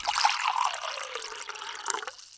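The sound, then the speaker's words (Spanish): Water pours steadily into a glass for about two seconds during a break in a conversation, a continuous splashing trickle with a shifting gurgle, and no one talks. “antes de hacerte un montón de otras preguntas, tomemos un poquito de agua, ¿crees?”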